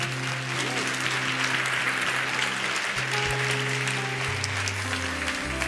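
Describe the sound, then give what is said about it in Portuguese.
An audience applauds Jesus steadily, a dense wash of clapping that holds at an even level throughout, with sustained low organ or keyboard tones shifting underneath. “Aplauda Jesus.”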